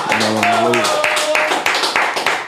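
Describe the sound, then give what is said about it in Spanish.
A burst of lively applause from a small group on Molusco TV, welcoming guest Alexio, with sharp claps running steadily for a couple of seconds while a voice cheers or whoops over the start. “Aquí está con nosotros en Molusco TV, lo recibimos con un aplauso.”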